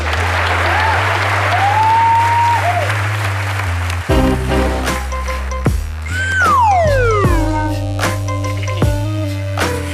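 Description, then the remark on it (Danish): A crowd applauds a good story in a steady, dense patter, with a few sliding whistle tones rising above it, then sustained low musical notes and a falling glide come in beneath the clapping. “Klap lige en god historie.”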